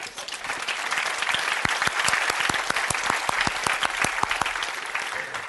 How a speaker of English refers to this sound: Because here's how it works Jesus is Lord. I'm waiting while you clap your hands.